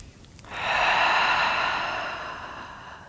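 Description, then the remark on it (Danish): A single long, deep breath drawn into the front of the body during a yoga backbend, a steady airy rush that starts abruptly and slowly fades, with no talking. “Og så trækker du vejret til forsiden af kroppen. Tag tre gode vejrtrækninger her.”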